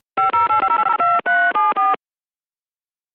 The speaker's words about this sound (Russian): я уже готов набрать следующий телефонный номер. Звонить будем в Нижегородскую область, замечательный город Дзержинск